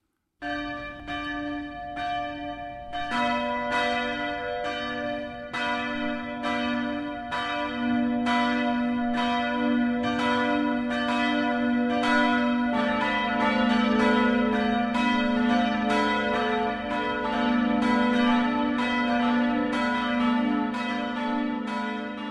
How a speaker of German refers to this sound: Das Mittagsläuten kommt heute von der evangelisch-lutherischen Kreuzkirche in Zwiesel.